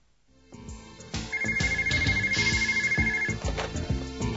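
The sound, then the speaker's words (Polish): A telephone rings with a melodic electronic ringtone, a rhythmic run of bright repeating notes that starts abruptly and plays loud, with no voices. “Trzy dni po stwierdzeniu zguby, Reisepass paszportu zadzwonił telefon.”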